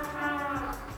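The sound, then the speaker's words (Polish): A trumpet, played by the editor-in-chief, holds a long, steady brassy note in the background, moderately quiet, with no other sounds around it. “Słyszycie tą trąbkę w tle? To naczelny nasz gra.”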